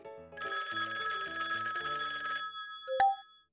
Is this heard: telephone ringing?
yes